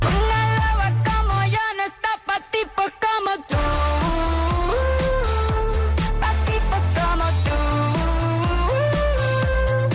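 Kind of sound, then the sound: new pop song playing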